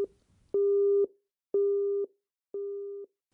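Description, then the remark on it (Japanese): A telephone busy signal as an on-duty nurse's call to Mr. Tamura fails to connect: three even, steady tones, each about half a second long and evenly spaced by pauses of similar length, sounding clearly and alone with no voices. “決められた時間になったので当直看護師はいつものように電話連絡しましたところがなぜか電話が話中でつながりません”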